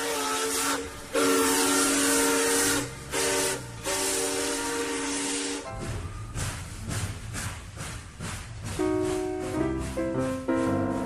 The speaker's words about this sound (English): The car comes to a stop on a bridge. A train speeds along its tracks underneath.